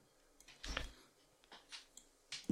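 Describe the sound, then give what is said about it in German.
Quiet rustling and small plastic clicks come in irregular bursts as a headphone cable is handled and untangled, with no one speaking. “gerade noch mein, mein Kopfhörerkabel entwirren, das macht mich gerade völlig fertig.”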